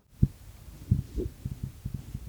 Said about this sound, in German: Das ist ein absolut schallschluckender Raum. Das ist eigentlich ein reflexionsarmer Raum.